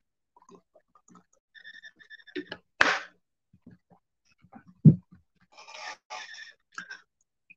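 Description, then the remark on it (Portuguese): Water being sipped from a glass: a few soft clicks, a sharp slurping draw, then a low gulp and more brief squeaky sips, with no one talking. “Deixa eu dar um gole na minha água aqui.”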